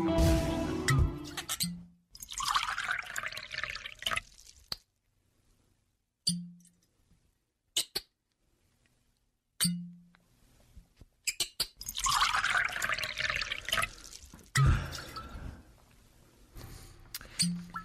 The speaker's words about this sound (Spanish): ¿Qué es eso que estamos escuchando? Pues es el descorche de una botella de vino.